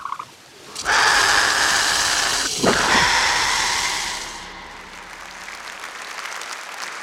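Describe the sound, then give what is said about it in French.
An angry swan lets out a loud, harsh hiss close up, lasting a few seconds with a brief rasping squeal in the middle before easing into a softer, lingering hiss. “chant d'un signe plutôt énervé pour le Dilophosaurus.”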